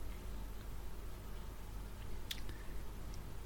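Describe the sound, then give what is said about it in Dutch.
During a Passover meal, someone bites into a piece of matza, with a sharp crunch and a few faint crackly chews over a steady low background hum. “Een stukje matza mag worden gegeten.”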